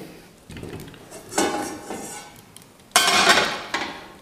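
Metallic clanks and scrapes of cookware, with a couple of sharper bangs as another frying pan is set down and shifted on a stovetop, without voices.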